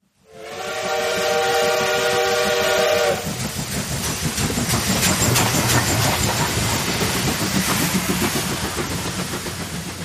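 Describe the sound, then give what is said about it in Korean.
A steam express train's whistle blows with stacked tones for about three seconds, then the train keeps rumbling and clattering steadily along the rails, loud, with no voices. It runs north on a moonless night from Gyeongseong Station toward Fengtian, China. “캄캄한 밤, 달도 없는 캄캄한 밤을 급행기차는 그 지금 자꾸 북쪽으로 북쪽으로 달아나고 있습니다.”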